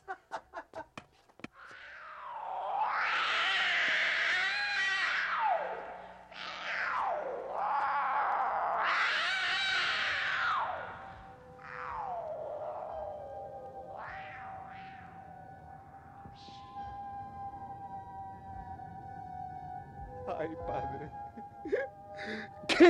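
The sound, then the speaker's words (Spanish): A cat wails from inside a walled-up tomb in long, drawn-out yowls that rise and fall in pitch: several loud cries at first, then thinner, quieter whining tones that trail off. “Apenas había cesado el eco de mis golpes, una voz respondió desde dentro de la tumba. Era un quejido sordo y entrecortado al comienzo, que luego creció rápidamente hasta convertirse en un largo y agudo”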